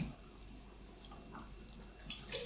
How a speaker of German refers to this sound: Also ich habe jetzt hier quasi in so einem Messbecher habe ich jetzt drei kochend heiße Wasserdinger reingemacht.